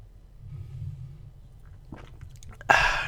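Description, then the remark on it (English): A wet gulp as someone swallows a sip of beer, with soft mouth clicks, then a sudden loud breathy exhale right at the microphone. “Do you hear me swallow my beer?”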